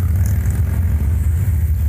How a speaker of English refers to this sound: Mama on that motorcycle. Oh, he's let he's letting the non-affiliated motorcycle through.